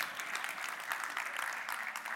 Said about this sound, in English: made everybody else clap for everyone else, so we should clap for Steve.